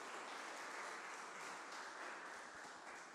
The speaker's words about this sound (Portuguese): E você crê nisso, aplauda Jesus bem alto, queridos.